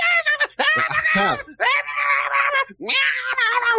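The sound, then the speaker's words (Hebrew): A voice imitates goblins shrieking inside a room, giving three long, loud, nasal screeches in quick succession with short breaks between them, warbling and strained, with no other sound. “ככה פחות או יותר גובלינים בתוך החדר.”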